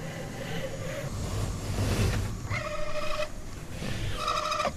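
A robotic arm standing in front of a locked bookcase starts moving after being given a tap, its motors giving off two bursts of high, steady, buzzy whine over a constant low rumble of background noise.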